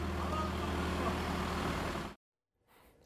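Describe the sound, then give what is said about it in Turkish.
A backhoe loader in a village, used during repairs of sewer and water network faults to fill a child's car with its bucket; its heavy diesel engine roars loud and steady for about two seconds before cutting off abruptly, followed by a faint, low rumble. “benim arabamızı arabamı doldurur musunuz diye bizi kepçeyle doldurdu.”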